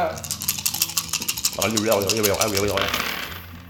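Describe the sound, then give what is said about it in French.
A quick burst of clattering clicks as dice are shaken and rolled, followed by a person talking while faint rattling continues underneath. “C'est comme ça qu'on brasse des dés.”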